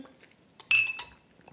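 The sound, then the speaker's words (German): Glasses clink together in a toast, a bright chime with a short ringing tail and a softer knock right after, with no talking. “Nochmal richtig schlecht anstoßen hier.”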